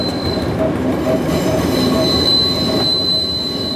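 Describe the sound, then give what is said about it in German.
Loud, continuous metallic squeal of train wheels grinding on rails near the Bernina massif in fine weather, with high piercing tones sustained over a steady low rumble of rolling railcars, without any talking. “Heute werden die höheren Töne angeschlagen und tatsächlich, es stimmt, es könnte schöner nicht sein.”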